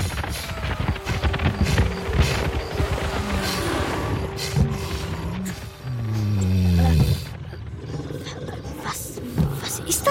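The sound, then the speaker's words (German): A mammoth herd of small and large animals gathered all around a pit bellows and roars in a dense, rumbling chorus, with one loud, deep, drawn-out roar rising before the noisy din carries on. “Das klingt ja wie, wie, wie du, Mama Mammut.”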